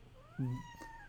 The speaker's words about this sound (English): Sorry, that's my cat. Um, I haven't given her love today uh, people on the podcast are used to hearing my cat screaming.